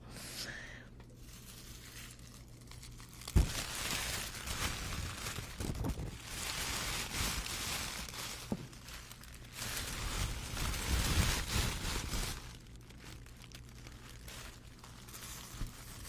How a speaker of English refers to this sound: To represent my time as a cheerleader, here are the sounds of pom poms ASMR style, I guess.